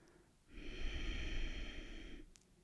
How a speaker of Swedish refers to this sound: Och andas långsamt ut igen.